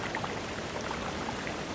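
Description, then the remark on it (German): A steady, full roar of a waterfall cascading into a shallow, almost round pool about the size of a basketball court, dense and unbroken from start to finish, with no voices over it. “Wir stehen vor dem Wasserfall, der sich in Kaskaden in ein flaches, fast rundes Becken ergießt, vielleicht so groß wie ein Basketballfeld.”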